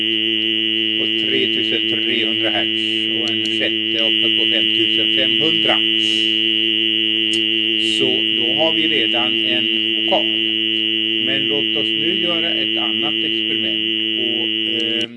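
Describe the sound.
Several pure sine tones sound together as one steady chord, blending into a synthetic, buzzy vowel-like hum that holds unchanged throughout while someone talks over it.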